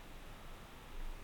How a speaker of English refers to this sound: You, you cut out for a second. Oh, I'm sorry. Well, you know, I got a new cell phone.